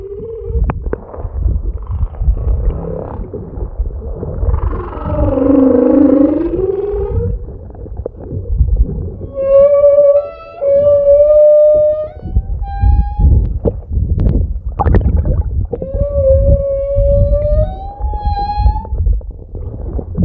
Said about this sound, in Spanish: de estar en Costa Rica también avistando ballenas, donde tuve la oportunidad de grabar las ballenas en vivo y eh, no tenía equipo profesional, la grabé con mi celular. Como pude, yo arriesgué todo eh, y ahí capté un minutito de un canto.